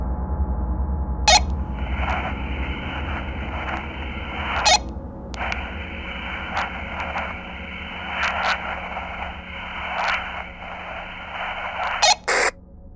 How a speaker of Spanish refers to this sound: En lo que checábamos nuestra área, mi compañera y yo nos dimos cuenta que el radiocomunicador comenzó a hacer un ruido.